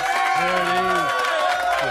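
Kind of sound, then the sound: crowd, audience applause and cheering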